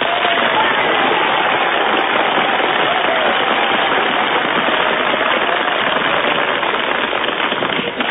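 An audience breaks into loud, sustained applause for contestant number two, measured by an applause indicator, a dense wash of overlapping claps that holds steady for about eight seconds with no voices on top.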